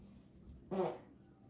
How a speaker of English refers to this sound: She just farted.